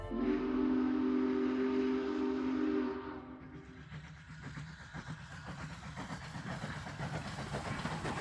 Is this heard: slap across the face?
no